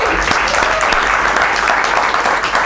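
A crowd applauds steadily, a dense and loud wash of many hands clapping at once that holds an even level throughout without pausing.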